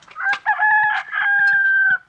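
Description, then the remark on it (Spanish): In a Luis Buñuel film scene where the blind Don Amalio poses as Jesus Christ, a rooster crows once, a loud, drawn-out cock-a-doodle-doo with a sharp rise at the start and a long sustained final note that cuts off cleanly, with no talking. “Al momento que vemos al ciego Don Amalio haciendo de Jesucristo, escuchamos el canto de un gallo, uno de los símbolos preferidos de Buñuel.”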